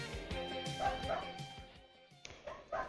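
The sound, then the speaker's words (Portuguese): A dog barks repeatedly in short, excited bursts, with yips mixed in, moderately loud against a faint background hum. “Olha um cachorro participando. É, até os cachorros se animaram também.”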